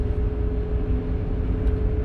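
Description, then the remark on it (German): The five-litre engine of a BMW M5 car being driven drones steadily from inside the cabin, a deep, loud rumble with a constant hum and road noise throughout, no voices present. “wo wir hier mit dem Armin unterwegs sind. Im BMW M5, 5 Liter”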